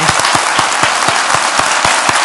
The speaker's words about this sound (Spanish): Ahora tengo que aplaudir yo a ellos.